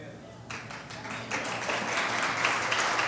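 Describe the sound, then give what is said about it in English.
An audience breaks into applause that swells after a moment into steady, dense clapping, with many hands overlapping into a bright, crackling wash that carries on to the end. “I hope, I hope you're not clapping for my singing skills, but clapping for the message in the word.”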